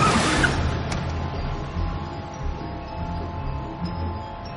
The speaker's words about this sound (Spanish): Ve el coche de Iván girando en una esquina y lo sigue. Es un Pontiac rojo.